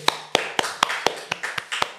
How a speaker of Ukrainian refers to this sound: Оплески!